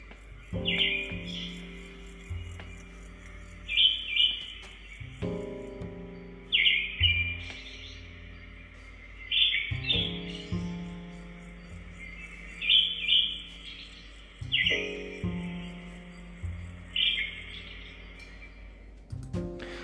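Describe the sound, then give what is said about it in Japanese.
A recording of a songbird of a species that breeds only around Japan, played back from an online video, sings alone, repeating a bright phrase of chirps and twittering trills about every three seconds, fairly clear, with a faint low hum underneath. “YouTube のあのさえずりがね、あったので、ちょっと再生していますが、結構ね、こんな感じです。”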